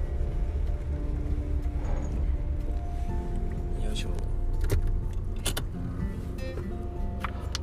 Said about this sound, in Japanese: ちょっと待ってくださいね車止めちゃおう